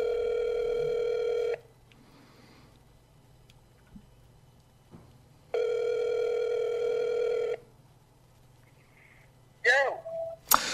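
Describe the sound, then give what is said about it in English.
A telephone ringback tone purrs twice in long steady bursts separated by a pause of silence, the call ringing unanswered, followed by a brief chirpy electronic warble at the end. “Is he not going to pick up?”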